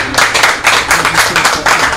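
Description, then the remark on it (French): A crowd applauds with steady, dense clapping that stays loud for the whole moment, many hands overlapping in a continuous wash with no talking over it. “On applaudit”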